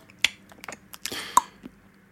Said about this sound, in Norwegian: Smatte veldig, veldig mye. Det er lettest når man, når man tygger sånn.